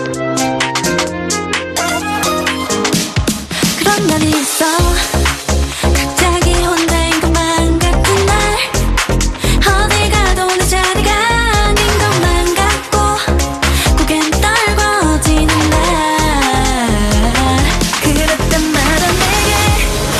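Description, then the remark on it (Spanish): A loud, dense K-pop song with a pounding beat, bright layered synths and melodic vocals, playing continuously after a short sparse intro and a brief break around five seconds. “¿Qué estamos escuchando, Natalia? Pues mira, Raquel, estás escuchando K-pop o K-pop”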